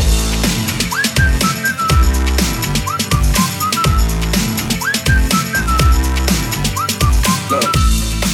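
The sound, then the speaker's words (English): A bright human whistle plays a short, catchy melody that repeats in phrases over a loud, punchy backing track with a steady thumping beat. “Can you blow my whistle, baby? Whistle, baby. Here we go.”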